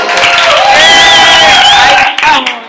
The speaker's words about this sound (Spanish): Mirad los aplausos, como se ven en la pantalla. Estos son los aplausos.